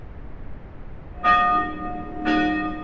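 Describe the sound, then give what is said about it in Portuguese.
A church bell rings out twice, about a second apart, each strike bright and resonant with a lingering, slowly fading hum over a quiet background rumble. “O sino já fazia parte da história da Ipebud.”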